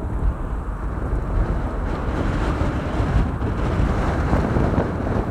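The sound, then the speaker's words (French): Steady, heavy wind buffeting the microphone, a dense low rumble that roars continuously for several seconds with no speech, like being outdoors in strong gusts. “Trop de vent.”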